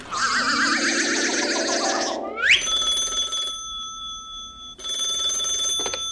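A telephone rings in two loud, steady electronic bursts with a pause between, after a warbling, sweeping sound effect at the start. Nobody speaks.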